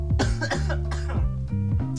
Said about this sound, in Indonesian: Sorry ya kalau ada suara batuk-batuk. Gue emang lagi kurang fit nih kalau gue. Jujur gue kurang fit. Uh, apa? Tenggorokan gue beberapa hari ini tuh gatel banget